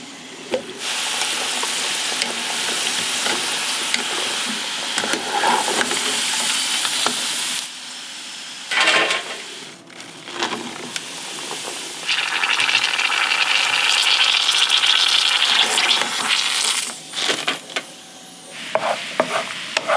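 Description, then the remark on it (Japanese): Sweet potato chunks for daigaku-imo, a sweet candied sweet potato dish, sizzle steadily in hot oil, with stirring and occasional clatter. The crackle fades briefly before surging loud again. No one speaks. “目覚めのいいね今朝はさつまいもで作る甘い大学芋のいい音それではお聞きください”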